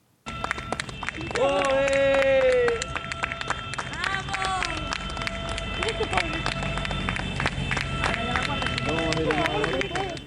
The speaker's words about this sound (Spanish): con aplausos recibían a estos agricultores en este municipio y así ocurrió en otros tantos. Esto ocurría aquí en Castilla y León.